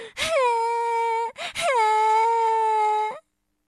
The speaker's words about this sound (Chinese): 看着哥哥离自己越来越远，特里一屁股坐到地上，哇哇的大哭起来。